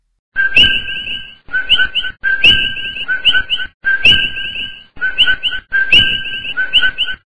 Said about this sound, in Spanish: La flora y la fauna del bosque El Yunque es muy variada y es un bosque muy húmedo, un bosque lluvioso. Y vamos a seguir nuestro recorrido por el yunque, pero quiero que escuchen muy detenidamente al coqui.